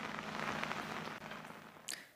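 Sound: rain falling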